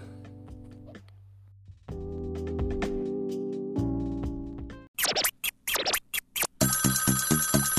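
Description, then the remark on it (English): A phone call being placed: steady electronic tones give way to a run of short, loud ringing bursts, then a fast pulsing ring. No one speaks. “everybody knows probably by now who I'm gonna call, and I'm gonna call, aka Cheddar”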